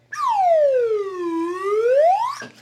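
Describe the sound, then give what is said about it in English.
A single drawn-out wailing scream made by a human voice imitating a wounded taxxon, sliding down in pitch then rising back up shrilly before cutting off abruptly, loud. “The wounded taxxon emitted a wailing slither, slithery scream.”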